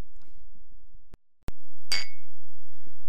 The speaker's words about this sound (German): Ein gutes neues Jahr wünschen wir im PowerQuest CC Studio. Wir haben leider mit Wasser und nicht mit Sekt angestoßen, aber was heißt leider?